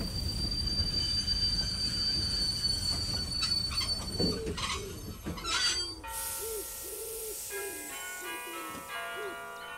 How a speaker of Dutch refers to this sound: Maar nog voordat ze iets kan zeggen, rijdt de trein naar Middelburg het station binnen.